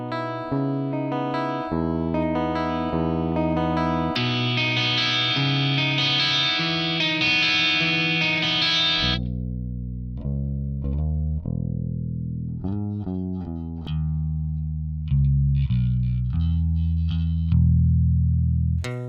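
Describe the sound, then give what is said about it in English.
Electric guitar run directly into a mixer with effects: a few steady chords swell into a bright, heavily distorted passage, then give way to a series of lower, cleaner plucked notes. Loud, with no talking. “Now we're going to do the music test where I run an electric guitar, an electric bass, and an acoustic guitar directly into the mixer and see how that sounds.”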